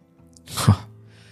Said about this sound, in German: Der Unbekannte drehte sich wieder zu ihr und schnaufte.